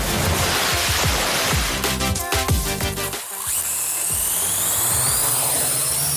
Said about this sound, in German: Wir heben ab. Nicht ganz, aber die Drohne startet und steigt in Richtung Himmel.